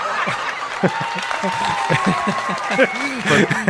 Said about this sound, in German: die Leute lachen nicht, sondern du kriegst Applaus für den Gag sogar.